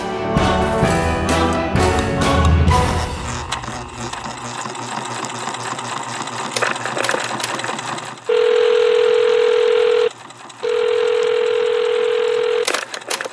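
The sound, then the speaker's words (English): Answering-machine telephone tones on the answering machine of Mr. Eerie's disturbing detective agency: after a burst of clattery, whirring mechanical noise, two long, steady mid-pitched tones sound loudly, separated by a brief gap, with no voices. “And now, another mysterious message left on my machine.”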